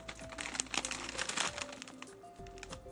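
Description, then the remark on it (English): A chimichanga's food wrapper, handled while preparing it for the microwave, crinkles and crackles continuously for a few seconds in a dense, irregular stream of sharp plastic rustles, with faint steady tones humming underneath and no talking. “Let's try make wrap uh, wrapper and place it on the microwave.”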